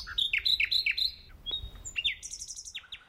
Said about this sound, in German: Wollen Sie mitmachen beim Zählen von Nachtigallmännchen und ihren variationsreichen Melodien?